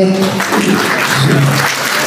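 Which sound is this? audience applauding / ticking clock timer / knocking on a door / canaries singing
audience applauding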